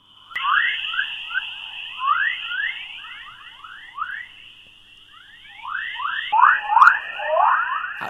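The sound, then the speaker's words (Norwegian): Earth's radio emissions, captured as radio waves and adjusted so human ears can hear them, turned into sound: a steady high electronic tone with a dense stream of rising, bird-like chirps and whoops sweeping upward over and over, with no talking. “Dette er jorda.”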